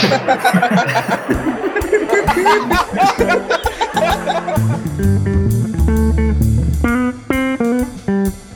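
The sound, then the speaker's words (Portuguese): A loud burst of canned sitcom audience laughter fills the first few seconds, then fades as a bright, bouncy musical jingle takes over. “Vocês vão botar a risada do Chaves? Eu vou.”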